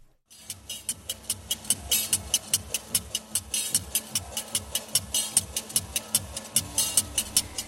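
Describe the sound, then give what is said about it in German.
Rhythmic metallic clacking of the scissors of a street vendor selling yeot, a traditional Korean taffy-like sweet made from grain or vegetables, at the Tongson Arira market in Korea, sharp bright clicks repeating steadily about three or four times per second, over a low market murmur with no clear speech. “Die klappernden Geräusche stammen von den Scheren eines J-Verkäufers.”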